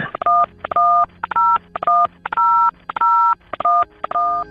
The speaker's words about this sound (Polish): I jak słyszymy, na końcu nagrania pojawia się cała seria tonów, po czym można było wybierając jedynkę ponownie odsłuchać tej wiadomości lub po prostu się rozłączyć.